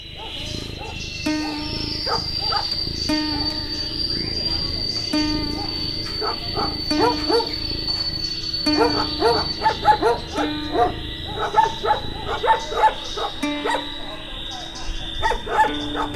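A dog barks again and again in short, irregular bursts, growing busier toward the end, over a steady high-pitched drone like insects in the background.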